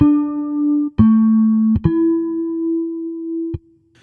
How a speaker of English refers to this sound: They're coming from the same place as the bass. So if you want to know what you're going to listen for, here's what a harmonic sounds like played on the bass.